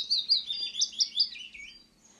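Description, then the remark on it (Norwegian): A willow warbler sings a soft, sweet phrase of whistled notes that slides gradually downward in pitch and fades away at the end, clear, with no voices. “Løvsangeren har en bløt, fløytende sangstrofe som faller i tonehøyde og dør litt bort.”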